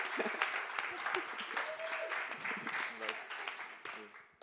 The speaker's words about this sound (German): Genau, lasst uns bitte sie mit Applaus hierher begrüßen.